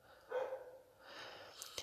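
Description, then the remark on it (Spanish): A dog barks faintly, a couple of short muffled yelps with a slightly whiny tone, followed by a brief sharp click near the end; no one speaks. “ofrezco disculpas por los sonidos del perro.”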